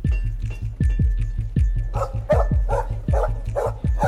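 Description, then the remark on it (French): A dog searching desperately for its master barks over and over near a pastry shop, in a rapid, steady series of sharp, loud barks with no pause between them for the whole stretch. “Un après-midi d'automne, la marée chaussée est alertée par des aboiements incessants entendus tout près de la pâtisserie. Un chien cherche désespérément son maître, un jeune Allemand, un certain Alaric, qui étudie tout près d'ici.”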